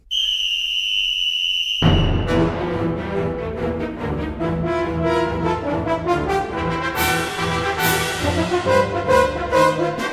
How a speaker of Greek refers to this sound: Και όλα ξεκινάνε με μία μπάλα που κυλάει στη Σοβιετική Ένωση και σταματάει με τη σφυρίχτρα ενός διαιτητή που άκουγε στο όνομα Δημήτρη Σωστακόβιτς.